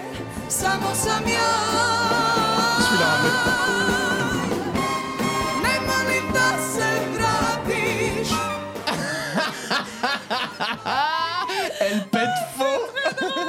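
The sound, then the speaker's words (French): A live orchestra plays full and loud during a song's chorus, with a trumpet line that sounds noticeably out of tune against the ensemble, its brassy notes jarring above the sustained strings and winds. “C'est-à-dire qu'on est sur le refrain, tendez vraiment bien l'oreille et écoutez cette trompette qui, trompe, qui trompette faux.”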